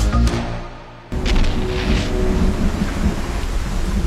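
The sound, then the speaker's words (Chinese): Heavy rain pours steadily while low, rumbling thunder rolls underneath, with a sharp crack and a surge in loudness about a second in, then continuous dense rainfall. No one speaks. “整座黑暗的城市开始下起了雨滴。”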